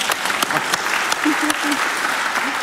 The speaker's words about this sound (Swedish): Vi har ju sett dig, en applåd!